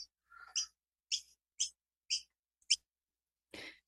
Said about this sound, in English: Your birds are chirping to that too. Yep. Hey, birdies.